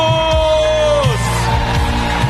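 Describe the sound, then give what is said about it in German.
A church audience yells and cheers to Jesus together in a loud, sustained roar, with scattered whoops rising over the dense noise of many people. “Schreit zu Jesus, lass uns Jesus erheben. Schreit zu Jesus, lass uns Jesus applaudieren.”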